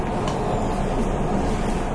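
A Nishitetsu 8000 series limited express train running from Fukuoka to Kurume rumbles along steadily, with dense low-frequency roar and rattling running noise filling the space continuously, heard as if from inside a carriage.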